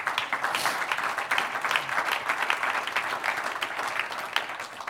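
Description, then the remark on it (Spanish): An audience applauds God during a sermon, steadily for about five seconds, dense overlapping claps forming a continuous, even wash of sound with no voices standing out. “Entonces no predicamos a nosotros mismos, predicamos a Jesucristo como Señor, como el Jehová de los ejércitos, como nuestro Padre celestial, como el único Dios que merece honra y un aplauso al que vive.”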